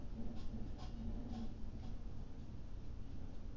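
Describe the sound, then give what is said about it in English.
Strong wind blows outside as a steady, low rumbling roar with no break, fairly quiet, with a few faint ticking taps in the first two seconds. “it's pretty windy right now.”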